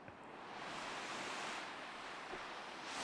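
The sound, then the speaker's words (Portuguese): Steady roar of sea waves washing onto a beach with colourful small boats spread along the sand, a broad continuous hiss of surf with gentle swells in intensity, loud, with no voices. “Então vamos descendo pela praia em direção ao mar.”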